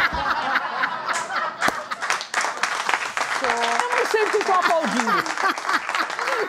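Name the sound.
applause sound effect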